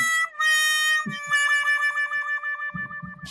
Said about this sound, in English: Had to go there. I'm sorry. I needed another trombone sound effect. It was really the only reason I went there.